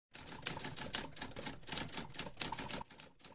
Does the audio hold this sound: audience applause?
no